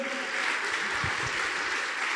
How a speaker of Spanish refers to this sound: Alguien tiene que darle un aplauso fuerte